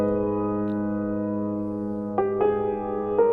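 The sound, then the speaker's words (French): A sustained piano chord, played through an experimental multi-effect and feedback synth, rings steadily, then three fresh notes are struck in quick succession near the end, each bright attack blooming over the lingering tones. Moderately loud, no voices. “Donc ça c'est un piano.”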